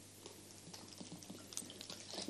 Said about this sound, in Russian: Так, я тут воды решил попить.